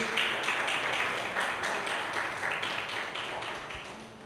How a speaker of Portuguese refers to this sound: Louvado seja Deus. Os irmãos podem aplaudir ao nosso Deus. Glória a Deus.